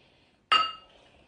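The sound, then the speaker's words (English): Glasses clink together once in a toast, a bright chime whose ringing tone fades away over about half a second, with no voices during the sound. “Cheers.”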